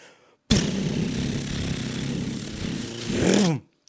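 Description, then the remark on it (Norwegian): A rapid, continuous drum roll tapped on a tabletop lasts about three seconds, staying steady before swelling slightly near the end and cutting off abruptly, made as a build-up before announcing a prize winner. “Skal vi lage en liten trommeøvel?”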